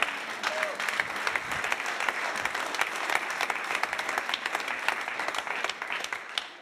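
An audience applauds the Lord, many hands clapping in a dense, continuous patter at an even level from start to finish, with faint murmuring voices beneath.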